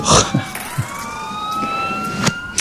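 Emergency sirens wail steadily in the background, their drawn-out tones slowly bending in pitch, with a few sharp knocks and clicks. No one speaks.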